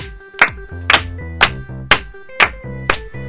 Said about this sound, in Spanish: Palmas, por favor.